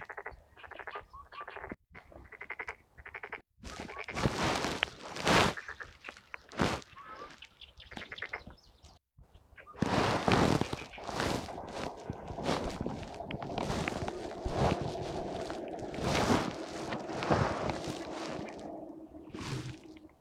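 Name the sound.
indian cuckoo calling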